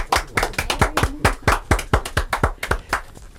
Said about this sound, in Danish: Tusind tak. Vi kan godt klappe lidt, kan vi ikke?